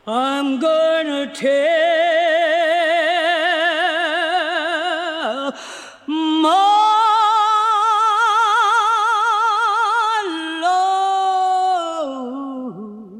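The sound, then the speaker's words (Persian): A recording of a woman at a microphone singing a gospel song alone, her strong voice holding long, sustained notes with rich vibrato, with a brief breath pause midway before she continues at full volume. “همون زنی که مارتین رو یاد رویاهاش انداخته بود تا به زبون بیاره پشت میکروفون رفته بود و آواز خونده بود”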